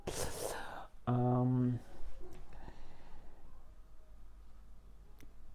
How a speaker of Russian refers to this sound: Кто там кошку, скучал по кошке. Вот она пришла. Слышите, как мяукает.